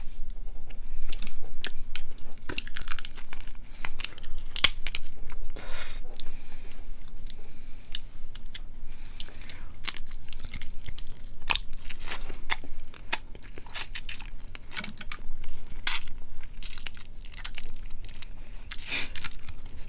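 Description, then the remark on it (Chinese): Crab shell being crunched and chewed: a dense, steady run of sharp cracks and crackling snaps, loud and irregular, continuing throughout with no talking. “对， 我觉得螃蟹的声音有催眠。”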